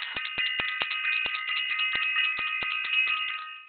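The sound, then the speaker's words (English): A bell rings rapidly for about three seconds, a bright, sustained metallic tone punctuated by a quick series of clattering strikes, loud and steady, then cutting off abruptly. No one speaks. “I got to ring the bell for self invested”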